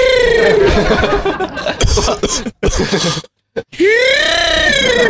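A close, loud coughing fit: a rapid run of harsh, rasping coughs between wheezy, strained voiced gasps, with a brief pause near the end before a final groaning breath.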